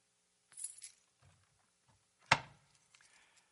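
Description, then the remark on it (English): Metallic keys jingle briefly as they are pulled out, followed by a sharper clinking rattle and a few faint, scattered taps. The sounds are fairly quiet, with no talking. “I'm going to grab something out of here.”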